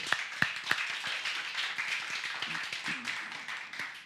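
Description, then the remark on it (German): Audience applause: dense, steady clapping from many hands, with a few sharp louder claps at the start, sustained at a moderate level throughout without talk over it. “Einmal einen Applaus.”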